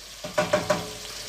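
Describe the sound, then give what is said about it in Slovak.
Cherry tomatoes sizzle steadily in a pan as they slowly stew and fry, a continuous hiss broken by three or four quick scraping bursts as they are stirred, with no voices. “Vidíme, že šery paradajky sa pomaly vlastne dusia, de facto opekajú dusia.”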